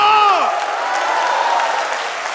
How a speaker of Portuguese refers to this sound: Quem está pronto, dá uma salva de palmas ao Senhor. Dá um grito de júbilo.